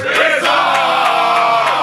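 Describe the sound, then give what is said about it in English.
A large audience claps in a steady rhythm while many voices loudly shout "wisdom" together, forming a dense, continuous roar of crowd noise. “Clap your hands and shout wisdom.”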